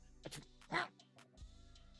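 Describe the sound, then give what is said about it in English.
A single loud, sharp sneeze bursts out, preceded by a brief sharp intake of breath, with faint room noise around it. “Bless you.”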